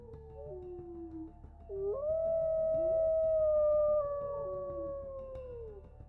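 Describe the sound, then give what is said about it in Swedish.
A long, drawn-out wolf howl rises and holds a wavering pitch for several seconds, then slowly falls away, loud over a low rumbling background. “det utdragna ilandet från en varg och en ung flickas förtvivlade skrik.”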